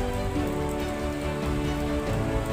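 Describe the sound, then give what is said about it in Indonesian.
Steady rain falls in an unbroken, even hiss at a constant level, with faint sustained musical tones humming underneath and no voices. “bukankah masih mau dengar suara hujan”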